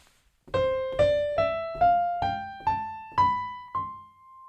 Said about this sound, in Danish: Det er en C-dur-skala.